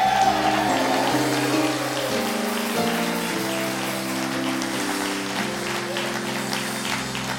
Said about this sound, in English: And, and while, while you're standing, would you give my nephew a hand clap of praise?